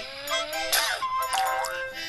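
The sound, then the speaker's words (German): A video game sound effect of a character shooting with its sneeze: a bright, cartoonish electronic burst with whooshing, pitch-sliding tones and a bouncy zing, lasting about two seconds, played clearly on its own with no talking. “Gesundheit heißt das ganze Spiel, weil man nämlich mit seinem Niesen schießen kann.”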